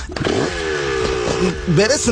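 A motorcycle engine revs loudly, its droning pitch wavering, then dipping and climbing again in a quick throttle burst near the end.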